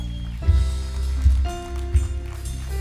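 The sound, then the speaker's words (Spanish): One person applauding himself claps slowly three times, evenly spaced, each clap a dull, solid smack over a steady backdrop of sustained musical tones. “Me aplaudo solo.”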